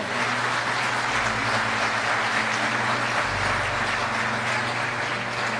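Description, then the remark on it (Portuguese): An audience applauds the Lord Jesus, a dense wash of many hands clapping at once that holds at an even, full level for several seconds with a low hum underneath. “Aplauda o Senhor Jesus por isso.”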